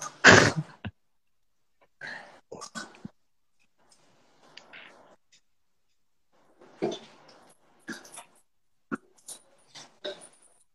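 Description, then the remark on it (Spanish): A female chocolate Labrador eats noisily, with irregular bursts of crunching and slurping separated by short pauses, opening with one loud, sharp snort-like burst. No one speaks. “Es una labradora chocolate, come con mucha y toda una fiesta de ruidos que no me dejaban concentrarme.”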